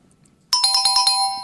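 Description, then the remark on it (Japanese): Out of near silence, a bright electronic chime bursts in with a rapid run of about six pulsing dings that ends in a held tone, a quiz show's correct-answer jingle marking a correctly answered question, loud. “ンポンピンポンピンポンピンポーンこれはもうちょろい問題でしたね”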